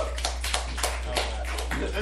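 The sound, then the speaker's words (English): Finger snaps and light applause: sharp, irregular claps and clicks, roughly eight over two seconds, crisp and moderately loud against a low steady hum. “yeah, a limp finger snap and applause for that.”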